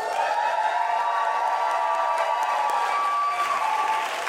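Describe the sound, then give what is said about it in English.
A large live crowd in New York applauds and cheers loudly and continuously, a dense wash of clapping with whoops and shouts mixed in, holding steady for several seconds without letting up. “Oh, yeah, by the way, for those of you who are not in the room, we're live in the Big Apple, New York. Make some noise.”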